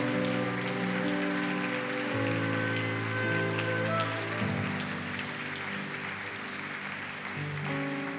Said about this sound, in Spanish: denle un fuerte aplauso al Dios, a Yahvé a su fidelidad, al que nos marca con gracia. Fuertes aplausos a Él.